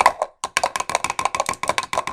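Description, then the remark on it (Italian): A quick drum roll tapped out with two pens, a rapid run of sharp clicks in an uneven rhythm after a brief pause, lasting about two seconds with no voices. “Aspetta, sto preparando un mega rullo di tamburi, senti qua, senti qua, doppia, doppia penna.”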